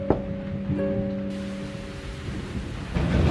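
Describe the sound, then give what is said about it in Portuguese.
A thunderstorm rumbles with steady rain pouring down, deep low thunder rolling underneath a constant wash of falling water, full, with a faint sustained tone fading early on. “Era uma garota que estava tremendo de frio, encharcada pela chuva.”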